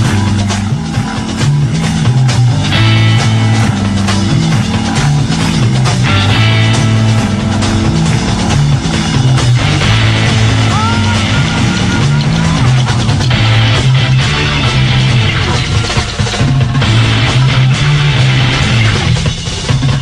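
A live rock band plays loudly and continuously at Woodstock in 1969, with driving Latin hand drums and percussion pounding beneath dense guitar and bass, and no voices heard.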